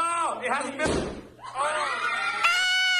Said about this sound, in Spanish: Ahí le tronaron el, globo prieto. Tronaron el globo prieto para.